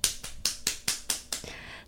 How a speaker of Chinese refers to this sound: 在这边先给他一个拍手。